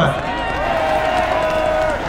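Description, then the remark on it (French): A crowd of protesters at a demonstration applauds themselves in a dense, steady wash of clapping and cheering, with a long sustained whistle-like tone riding over the noise for most of the moment. “Vous pouvez être fiers de vous et vous applaudir.”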